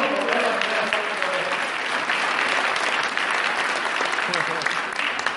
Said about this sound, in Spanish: Un aplauso para aquí.